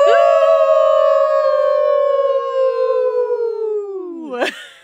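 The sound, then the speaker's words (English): People howl like wolves in one long, loud sustained note that slowly sinks in pitch for about four seconds, then dips sharply and breaks off into a breathy burst. “will you will you howl out with us?”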